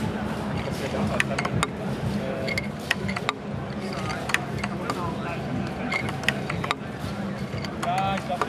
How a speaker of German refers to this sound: Hier stehen senkrechte Bambushölzer und unten ist ein waagerechtes kleines Bambusstück, was durch eine rotierende Mechanik zum davor schlägt. Möglicherweise ist das ein gewisser Rhythmus.